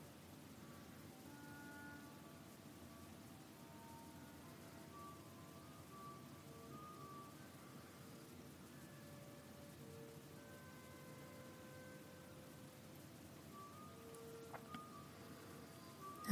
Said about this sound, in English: the sounds of the creek in your ears.